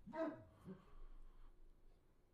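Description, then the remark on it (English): A dog sitting in a dark hallway barks once or twice, muffled and fairly faint, followed by a quiet, empty stillness. “My dog's sitting in the hallway in the dark barking.”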